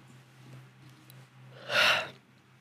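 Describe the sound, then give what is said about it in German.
A single breathy yawn swells up and fades over about half a second, fairly loud, following quiet background hum with no talking. “Ja, ah, Entschuldigung, ich muss so kurz gähnen.”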